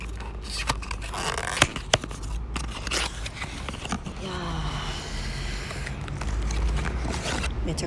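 A cardboard box holding a Kantsuma Premium canned direct-fire grilled chicken bonjiri snack being opened: sharp snaps and clicks, then steady scraping, rustling and tearing of the flaps over a faint low hum, with no one speaking.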